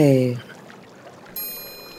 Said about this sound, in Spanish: Por favor, quédense con nosotros unos momentos más para recibir el beneficio de una terapia sensorial, el sonido del agua.